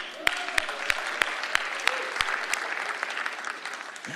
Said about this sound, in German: Gib ihm mal einen Applaus